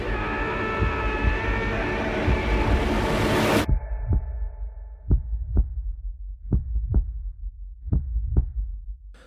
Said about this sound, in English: that was the trailer for Life